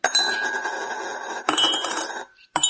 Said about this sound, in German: Für schwedischen Kaffee muss man eine Münze, habe ich vorher äh, abgekocht mit äh, kochendem Wasser, damit es nicht ganz so eklig ist, muss man eine Münze in seiner Tasse versenken. Ich mache das mal